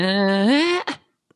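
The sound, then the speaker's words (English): A voice sings one sustained, whiny note that slides upward in pitch, imitating a nasal 1990s pop-singing style, then breaks off into a brief breathy tail before silence. “Like uh, she always goes up.”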